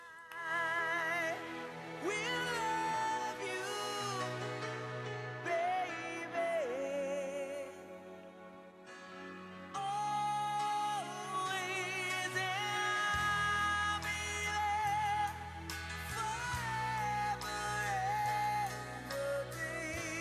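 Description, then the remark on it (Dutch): A rock power ballad plays at full volume, a sung melody soaring over sustained chords and a steady bass line, with a brief dip in the middle before it swells back in. “Een ballad, een power ballad.”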